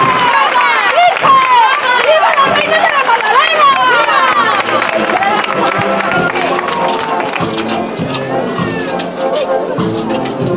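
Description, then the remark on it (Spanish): Sustained applause from the public at a street procession as the Virgen del Mayor Dolor, carried by women bearers, arrives in the Plaza de la Magdalena: dense, steady clapping blended with cheers and a hubbub of overlapping voices, loud and unbroken throughout. “Y ahora, cuando la última fila de costaleras desciende el escalón, en este momento, la Virgen del Mayor Dolor, con el aplauso del público, está en la Plaza de la Magdalena.”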